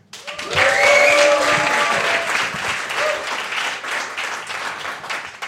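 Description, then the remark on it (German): A live crowd bursts into sustained applause with cheering and whoops, loud and close, the dense clapping rising quickly and holding steady for several seconds before starting to thin out. “Wir haben ja ein paar Gäste hier. Seid mal laut, dass man euch in der Aufnahme hört.”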